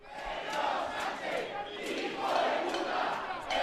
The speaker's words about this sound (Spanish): Recordemos anoche que cientos de personas se volvieron a concentrar ante la sede del PSOE convocados por Revuelta, organización vinculada a Vox. Incluso acudió el propio Santiago la noche se volvieron a escuchar consignas como estas.